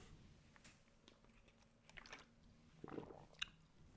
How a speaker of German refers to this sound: Ich ähm, gönnen wir mal eben einen Schluck Wasser, weil irgendwann muss ja auch mal das trockene Laberlauchmaul ein bisschen äh, befeuchten, den Schlund quasi.